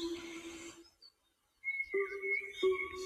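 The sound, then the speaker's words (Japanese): Resonant, bell-like drips like a Japanese suikinkutsu water harp ring out and sustain, with two clear struck tones later on, while faint, high small-bird chirps added to the sound flicker above; a sound made for a countdown, with no voices. “これなんですけどね、こういう、なんか、水筋靴みたいな音で、はい。小鳥の鳥さんのね、声も入れてくださって、作ってくださいまして。”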